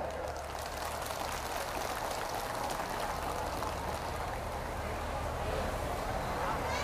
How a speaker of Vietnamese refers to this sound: nếu mà tất cả các quý Phật tử à, đồng tình với những điều mà tôi vừa nêu đó để dâng cho một tràng vỗ tay thật lớn